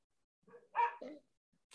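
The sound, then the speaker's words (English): A dog barks several times outside a window in a quick, uneven burst, the sharp yaps blending together before a short pause and one more bark starting at the end. No one speaks. “It's a very loud dog outside my window. Bark, bark, bark.”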